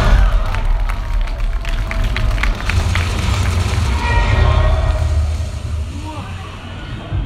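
Fans at a premiere screening of Avengers: Endgame roar and cheer continuously, with bursts of clapping and shouting woven through a steady wall of excited noise that stays loud throughout.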